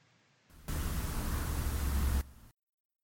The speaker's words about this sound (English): then you're going to hear silence, and then it's going to hear a lot of static. And within that static is the word that I think we hear. So let me play that right now.